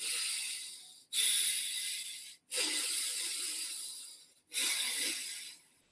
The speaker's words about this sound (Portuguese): E respirando vigorosamente pelas narinas.